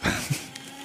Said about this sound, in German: Das beste mal, Gerät für einen Podcast. Einfach ein Aktenvernichter.